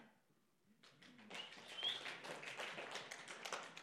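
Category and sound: crowd, audience clapping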